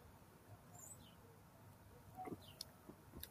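Birds screeching outdoors in a junkyard on a Friday morning: a few short, high, squeaky calls scattered across a quiet background, fairly faint, with no one talking.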